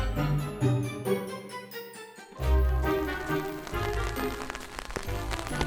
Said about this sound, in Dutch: Richting Boerhaven. Het regent.